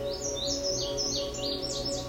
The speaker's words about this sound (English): The song of the male indigo bunting is lengthy and complex and is best learned through listening and memorizing the song. Some use the mnemonic fire, fire, where, where, here, here, put it out